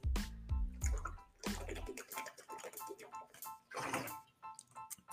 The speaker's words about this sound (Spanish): Sí, compadre, pero dame un segundo porque estoy en el challenge de tomarme un galón de agua, así que